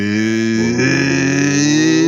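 A neighbour starts a motorcycle and its engine rumbles, a loud steady drone that climbs slightly in pitch partway through as it revs, with no voices over it.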